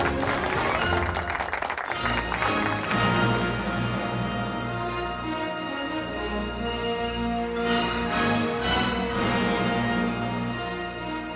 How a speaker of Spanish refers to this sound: para el que pedimos un fuerte aplauso.